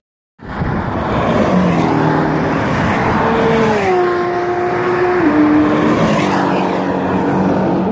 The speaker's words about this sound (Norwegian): Ja, en av de bilene som kjørte forbi nå, det var en Porsche Porsche GT3 RS, eh, der eh, Christian Lauenborg kjører en slags eh, taxiturer for å demonstrere litt sporvalg med én og én passasjer.